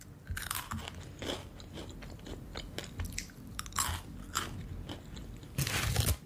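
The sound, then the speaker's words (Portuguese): Crisp crunching as someone bites into and chews a crunchy snack, with irregular bursts of crackling chews and a louder crunch near the end, no talking. “Hum, isso aqui tá bom, né? Tá bem crocante.”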